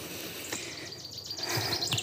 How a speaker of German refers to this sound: Ich hoffe, ihr hört die lauten Vögel und vielleicht hört ihr auch meine Schritte. Ich gehe mit Marley durch den großen Rote Hornstadtpark in Magdeburg noch.